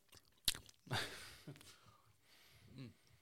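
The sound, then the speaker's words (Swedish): Wet chewing of a sausage made of 60% wild boar and some domestic pork, seasoned with rosemary, thyme, juniper, garlic and black pepper, with a few sharp smacking bursts near the mic, then softer mouth sounds and a brief murmur of breath or voice at the end. “Måste du smaska lite extra bara för att ja, jag sagt precis.”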